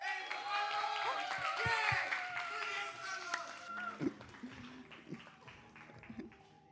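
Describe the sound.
An audience bursts into loud applause mixed with cheering voices and whistles, a dense wash of clapping for the first few seconds that thins into scattered claps and murmurs.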